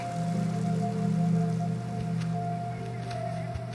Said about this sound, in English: The sound of running water.